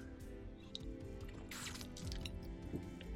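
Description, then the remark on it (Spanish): Someone takes a quiet sip of water, with soft wet slurping and small swallowing sounds over a few seconds, and no talking. “déjenme tomar un traguito de agua que ya se me está aquí, este, acabando la garganta y secando la, la boca.”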